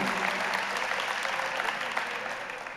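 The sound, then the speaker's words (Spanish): An audience claps for a group pastor who has just become engaged, a dense, continuous wash of applause that holds strong for a few seconds, then begins to taper off slightly toward the end. “Un aplauso a ella.”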